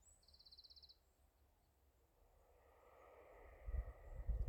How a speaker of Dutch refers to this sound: Het is echt adembenemend mooi. En ik denk dat jullie ook wel de vogeltjes kunnen horen.